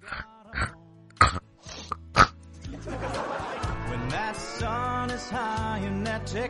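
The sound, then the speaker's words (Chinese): Someone imitates a pig: a handful of short, sharp snorting grunts, then a longer run of wavering, nasal squeals and oinks that rise and fall in pitch, fairly loud throughout. “你给我学个猪叫吧。”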